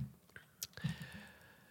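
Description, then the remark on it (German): A few faint, scattered keyboard clicks tap out, irregular, with a soft steady hum lingering in the background. “Ellie tippt und wir beide überlegen”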